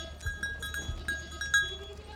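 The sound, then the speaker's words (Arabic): A large herd of goats grazing in a green field bleats in overlapping calls, with a few sharp, higher cries standing out above a steady, low rumble of background noise. “ركضت ميرا وراه حتى وصلها على مجموعة كبيرة من العنزات”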